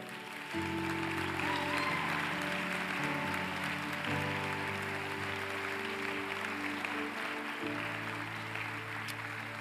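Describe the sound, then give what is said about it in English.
An audience welcomes teachers coming onto the platform with steady, dense applause that runs the whole way through at an even loudness, with sustained low music chords beneath it that change pitch a few times. “They're so faithful and they're coming on the platform now. Would you make them welcome today?”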